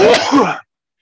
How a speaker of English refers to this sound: Bless you.